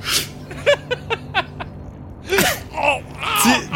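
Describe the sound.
A voice imitates sharp, hissing inhales through a blowpipe, sucking on it like a bong instead of blowing: a breathy suck, a quick run of short gasping catches, then two longer, strained wheezing pulls, fairly loud with no words.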